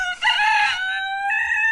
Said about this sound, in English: you just hear the sound of a rooster crowing.